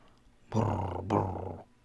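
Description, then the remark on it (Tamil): A voice imitates a goat's sneeze: a gruff, snorting burst broken into two quick pulses, fairly loud, with no talking around it. “என்று ஒரு ஆடு தும்மியது”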